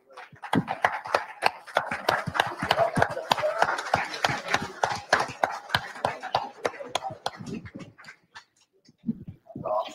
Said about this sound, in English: Please stand up. We'd like to give you a round of applause.